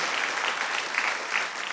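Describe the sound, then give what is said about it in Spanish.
An audience applauds the Lord during a morning church service, a dense, even wash of many hands clapping at once with no voices standing out, holding a fairly constant level throughout. “Le da un aplauso al Señor a usted esta mañana.”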